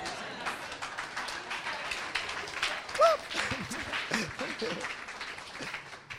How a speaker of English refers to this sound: Listen, I know you don't like it, but clap just to cool me down. Because if you don't clap, you may not like what will come next.